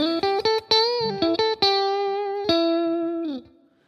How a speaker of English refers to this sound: So if we start with a general kind of basic guitar solo sound like this.